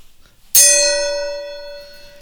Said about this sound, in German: Moment. Moment. Der Gong ist am Start.